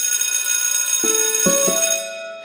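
A bell rings with a steady, bright high-pitched shimmer, and three lower metallic strikes land in quick succession before the ringing fades out near the end. No voices.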